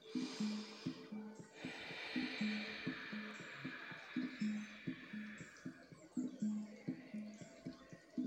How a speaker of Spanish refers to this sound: cada que tengas oportunidad, respira profundo y relájate. Siéntete y disfruta tu respiración. Respiro profundo.